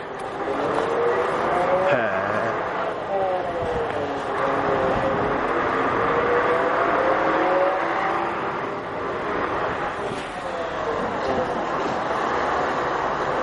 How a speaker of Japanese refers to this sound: でここ今走ってったバスは新潟市某所に向かう路線バス